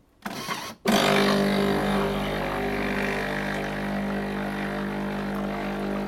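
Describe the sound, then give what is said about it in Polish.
An espresso machine rinses its milk frother, with hot water flowing through the hose into the drip tray: a short sputter, a brief pause, then a loud, steady whirring rush of pump and water with a low hum, running unbroken to the end. “Teraz się płucze spieniacz. Teraz się płucze.”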